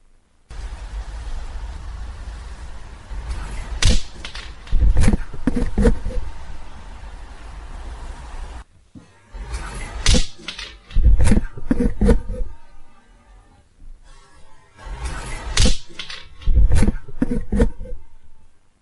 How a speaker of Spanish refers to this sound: Y seguidamente se nota cómo manipulan la grabadora y curiosamente no la tiraron de respaldo. Vamos a escucharlo.